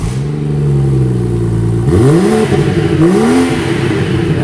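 A BMW car engine idles with a steady low hum, then revs up twice in rising, sweeping surges about a second apart, with no talking.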